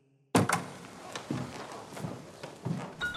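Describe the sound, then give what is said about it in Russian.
A door bursts open without a knock with a sudden loud bang after a moment of silence, followed by several heavy, irregular thuds like boots as the commandant, Colonel Korovichenko, enters the drawing room with several soldiers. “Но праздничное настроение мгновенно улетучилось, когда в резко открытую дверь без стука в сопровождении нескольких солдат вошел комендант, полковник Коровиченко.”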